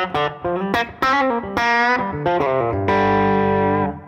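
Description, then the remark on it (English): Electric guitar on the neck pickup with a lightly broken-up, semi-broken overdrive plays a quick run of single notes, then lets a chord ring out and sustain. Fairly loud, no voices. “I would say overall, that's my neck position, you know, semi-broken kind of thing.”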